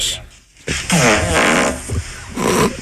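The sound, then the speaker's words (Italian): A long, sputtering recorded fart with a wobbling, buzzy pitch plays from a phone through its small speaker, breaking into several bursts over about two seconds and ending with a final rasp. “spingi per fare il divertente, poi cazzo tiri la frizione un attimo perché puoi”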